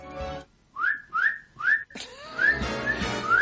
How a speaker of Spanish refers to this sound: el silbo, el silbo gomero. Está practicando el silbo gomero. Ahí dice que está muy contento, muy contento.